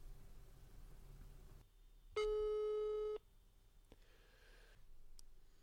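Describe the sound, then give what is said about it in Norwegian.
A steady telephone tone sounds for about a second as a call is placed to a hospital doctor, a single sustained pitch with harmonics, loud against a quiet background, followed by a few faint clicks and low line noise. “Nå ringer vi han opp.”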